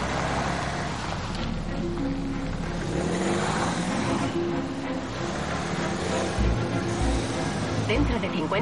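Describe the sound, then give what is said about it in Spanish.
A car engine hums steadily as the car is restarted and turns around, its low rumble shifting slightly as it maneuvers, with a voice speaking over it. “Espera un momento y vuelve a arrancar el vehículo. Cambio de sentido cuando pueda.”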